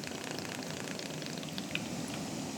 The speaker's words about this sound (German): Und jetzt tropfen schon die ersten Tropfen Hydrolat in unser Auffanggefäß. Hydrolat ist, man sagt immer, der kleine Bruder des ätherischen Öls.